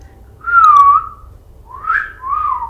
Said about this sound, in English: Whistle.